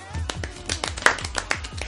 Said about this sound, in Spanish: Aplausos.